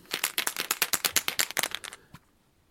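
A die clatters across a hard tabletop in a quick run of sharp clicks for about two seconds, then settles with one last soft tap, landing on a two. No one speaks.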